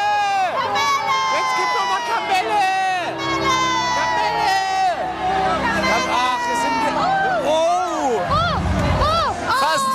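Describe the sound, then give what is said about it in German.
A dense crowd of many voices at a carnival parade shouts and calls out together for sweets being thrown, with overlapping cries of "Kamelle!" and high excited yelling. “Aber Komm, sie werfen jetzt, oh, wir schreien mal, vielleicht sind sie Gönner.”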